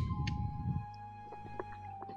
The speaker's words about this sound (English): You hear that woman? She is screaming. The rest of you listening can hear a woman screech and it's not the exact same voice you heard before,